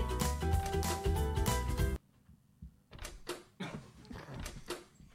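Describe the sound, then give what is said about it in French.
A loud burst of music cuts off abruptly, followed by a moment of quiet and then a door in the escape game Aventure à Auschwitz being opened, with several sharp clicks, latch rattles and knocks. “Oh, c'est mystérieux Mais qu'est-ce qui peut bien se cacher derrière cette porte”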